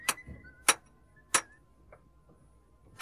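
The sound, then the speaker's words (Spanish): A hammer strikes metal horseshoes four times at an uneven pace as horseshoes are being made, each sharp clang leaving a brief bright ring, with a longer pause before the last blow. No one speaks. “Deja ya de clavetear y ven a comer, anda.”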